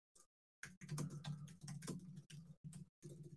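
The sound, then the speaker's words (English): Rapid, clattering keystrokes on a computer keyboard, fairly loud, coming in quick bursts separated by brief pauses, as someone pounds the keys while pulling up player statistics. “but I'll pull it up, make sure I'm pounding on the keys so you guys can hear me.”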